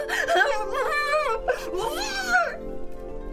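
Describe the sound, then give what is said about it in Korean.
A woman's muffled moaning as a teddy bear gags her mouth, in two wavering, rising-and-falling bursts, fairly loud, then trailing off into near silence. “곰인형 한 마리가 아내의 입에 재갈을 물렸다.”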